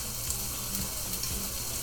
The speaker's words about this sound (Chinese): 脆盐盐鲷鱼，哇！鲷鱼被我煎的好像有点失败，没关系，有熟至少是好吃的。